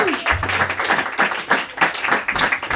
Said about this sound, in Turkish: Kendisi herhalde en son AK Parti grup toplantısında bu kadar alkışlanmıştır Türkiye'de.